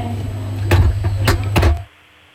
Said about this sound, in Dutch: Oké, ga ik de deur dicht doen? Ja. Oké.